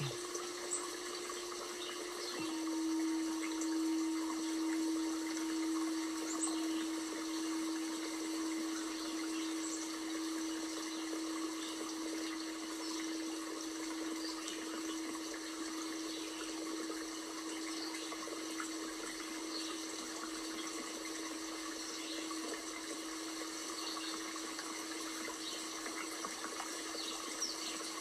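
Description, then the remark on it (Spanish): River water flows in a steady, unbroken wash that stays even throughout, with a faint low hum running beneath it for the first half. No voices are heard. “El agua fluye tranquilamente.”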